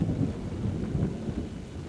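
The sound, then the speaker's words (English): Steady rainfall, after three weeks of unbroken rain, with a deep, continuous rumble of thunder rolling underneath, low and heavy throughout, with no voices. “It has been raining for three weeks without break or respite.”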